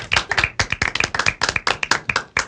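A short round of applause: a few people clapping in quick, uneven bursts for a couple of seconds, crisp and fairly loud, with no voices over it.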